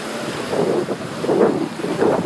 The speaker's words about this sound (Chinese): 好了，不说话了，安静的听会儿海浪的声音吧。